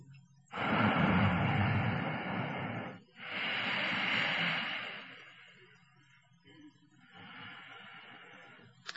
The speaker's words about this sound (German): Dann erzeuge den für die ersten Schritte dieser Meditation typischen Ujjayi-Klang, den sanften Hauchklang beim Einatmen und beim Ausatmen.